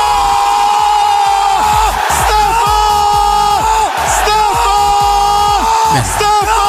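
A huge stadium crowd roars after a goal by Tammy Abram from a ball played in the air, a loud, continuous wall of cheering and yelling with whoops and surging shouts rising throughout, dense for several seconds.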